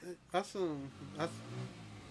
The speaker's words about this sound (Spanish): saludos a la moto.